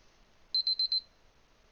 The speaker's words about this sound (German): Der Timer hat gerade gepiept.